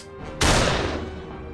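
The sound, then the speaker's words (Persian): A single loud gunshot from a hunter's gun, fired in the dark, cracks out suddenly, its sharp burst spreading across all pitches before a long, rumbling echo slowly fades away. “یه شکارچی ناله های گرگه رو شنید یک تیر شلیک”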